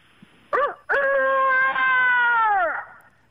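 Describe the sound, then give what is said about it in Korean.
A man imitates a rooster crowing with his voice, presented as an Uijeongbu rooster call: a short rising note, then one long, held, slightly wavering call that droops at the end, fairly restrained, like a rooster crowing quietly because it senses a person nearby. “하 의정부 닭소리 한번 들어보겠습니다.”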